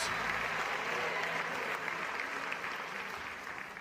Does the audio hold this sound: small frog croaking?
no